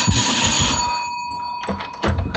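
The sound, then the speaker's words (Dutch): A doorbell rings with a steady, fairly loud electronic tone held for a couple of seconds, its bright buzzing pitch unbroken, with a few soft knocks and rustles underneath and no talking. “Wacht even, ik moet even de deur openen.”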